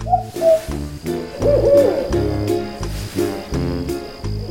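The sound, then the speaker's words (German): An owl hoots repeatedly in a steady rhythm, low resonant calls, fairly loud, with no talking over them. “Welches Tier suchen wir? Ich sag es dir. Die Eule.”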